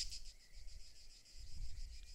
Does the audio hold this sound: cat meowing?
no